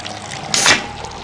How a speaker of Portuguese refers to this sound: Quero ver a vitamina de abacate que abre com esse som.